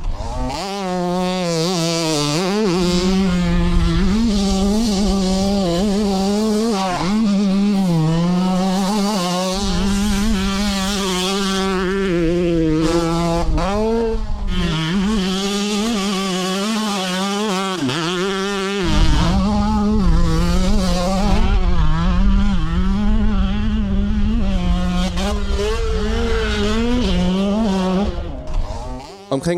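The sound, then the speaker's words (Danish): A two-stroke motocross motorcycle engine buzzes loudly and continuously, its pitch repeatedly rising and falling as the throttle is blipped and revved, with no talking. “Der er en tydelig forskel i lyden på en totakter og en firetakter, og fordi de fleste i motocross kan huske dengang græsset var grønnere, og sommerne var længere, og totakter dominerede, så vil mange få en følelse af nostalgi, når de hører det her.”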